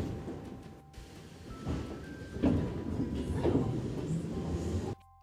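A metro train rumbles through a station of the St. Petersburg metro with a steady, loud roar, thuds and a faint tonal whine, then the noise cuts off abruptly near the end.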